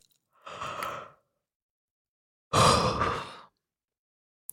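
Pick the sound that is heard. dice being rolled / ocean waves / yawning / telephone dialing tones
yawning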